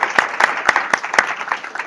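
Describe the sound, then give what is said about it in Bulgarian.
An audience applauds, a dense wash of many hands clapping with a few sharp, louder claps standing out at a steady, quick pulse, with no voices rising above the noise. “Аплодисменти за този човек, за това, че събира тази общност.”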